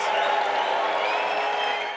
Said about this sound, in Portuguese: Terceiro mais votado, o deputado federal reeleito Eduardo Bolsonaro recebeu aplausos e vaias.